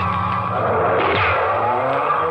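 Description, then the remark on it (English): A car roars away at speed at night, its engine revving hard with a rising whine and a squeal of tires. Loud throughout, with no voices. “We were moving when the killer reached the door and fired.”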